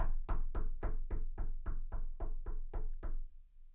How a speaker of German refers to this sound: da muss man mal ganz kurz klopfen.